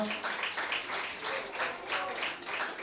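An audience applauds steadily while the next performer comes up, a dense bright crackle of many hands clapping that swells and eases in rough waves without pause across the whole stretch.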